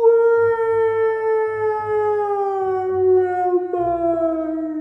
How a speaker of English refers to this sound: A distant howl echoed.